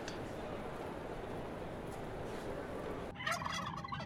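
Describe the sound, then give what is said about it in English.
A voice imitates a turkey's gobble at turkeys on board a train, over a steady rumbling background noise, with a sharper, rapid burst of warbling gobbles near the end. “stop gobbling to the turkeys.”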